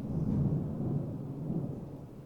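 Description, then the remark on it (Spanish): A deep, rolling rumble of thunder before a storm, holding steady for a couple of seconds, low and heavy. No voices are heard. “No, es el sonido de cómo no voy a poder regresar a pie a mi casa porque va a caer una tormenta.”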